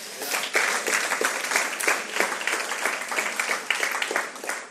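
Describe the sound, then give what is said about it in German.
An audience applauds for God during a church sermon, steadily for several seconds, a dense wash of many hands clapping at a fairly even loudness with no voices standing out. “Amen, das ist ein guter Applaus für unseren Gott wert.”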